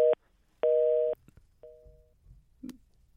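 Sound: telephone busy tone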